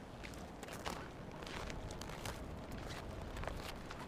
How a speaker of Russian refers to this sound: Вот сейчас все бросила и пошла в лес рядом с домом гулять. Здесь очень здорово. Здесь солнышко так светит, и снег лежит, и, может, слышишь, как хрустит.